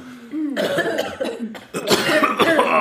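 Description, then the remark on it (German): A run of harsh, raspy coughs from too much smoke in quick succession, loud, with a brief pause before another burst of hacking coughs. “Zu, zu viel Rauch”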